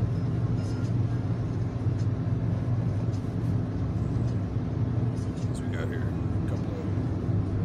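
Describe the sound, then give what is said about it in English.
A military convoy of heavy armored vehicles, BTR armored personnel carriers along with trucks such as fuel or ammunition trucks, rumbles past, a steady, loud, low engine roar that stays unbroken throughout, with faint voices in the background. “There's more APCs. This is BTRs.”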